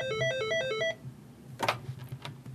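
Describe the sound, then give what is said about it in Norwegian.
A telephone at Røyketelefonen, the Norwegian helpline for smokers, rings with a bright electronic trilling tone, a rapid repeating pattern lasting under a second, then cuts off into clattery handling noises as the receiver is picked up. “Hos hjelpetelefonen for røykere er det fortsatt folk som ringer, men pågangen har stupt til en fjerdedel sammenlignet med toppårene.”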